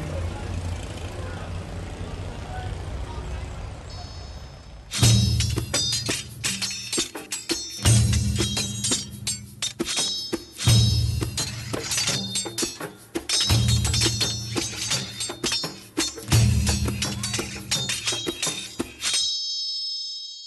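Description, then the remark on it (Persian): Many stones struck together by mourners in the sang-zani stone-striking mourning ritual of the Sangzan group of Shahreza, in loud, sharp, dense clacks, following a steady rhythm that repeats in cycles every few seconds with heavier accented beats. The clacking begins after a quiet stretch of background. “سنگ زنی، میراث کهن عزاداران شهرضا”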